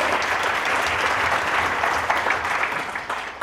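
An audience claps steadily, a dense, even wash of many hands with a few sharper individual claps standing out, holding at a fairly loud level for the whole few seconds.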